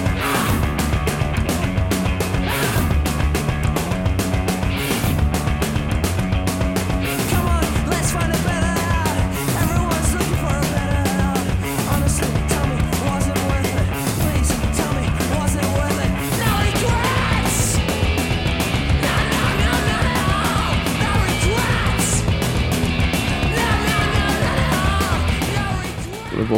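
Loud, dense rock song with driving distorted guitars, pounding drums and shouted vocals, playing continuously at full volume with a steady fast beat throughout.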